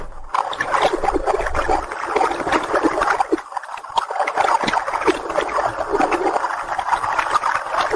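Water gushes from a rock and pours steadily in torrents in a loud, continuous rush, with splashing and gurgling bursts running throughout and no voices.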